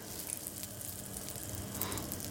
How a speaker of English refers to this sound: And you wanna make sure that the butter melts before you add the leeks to the pan. Because when, you, when those leeks hit that butter, you want it to sizzle. You want them to start cooking immediately. So, just gonna give that a few more seconds.